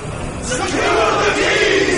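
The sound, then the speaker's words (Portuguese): A crowd of prisoners, the whole prison, shouting all at once: a loud, dense roar of many voices blending together and swelling slightly after the first half second, steady to the end. “Todos eles gritam ao mesmo tempo, a prisão toda assim.”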